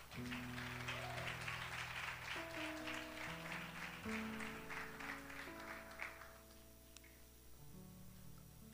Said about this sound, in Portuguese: Uma salva de palmas para minha esposa.